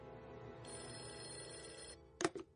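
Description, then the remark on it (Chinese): A telephone rings with a sustained, bright electronic trill, followed by a short burst of clicking or clattering as a butler picks up the handset and sets the receiver aside; the call is for the lady of the house. “夫人，您的电话。”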